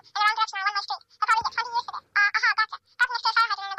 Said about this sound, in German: Und warum klingelt hier... Oh, furchtbar. Warum klingelt hier denn jetzt das, das, das Telefon? Was soll das denn?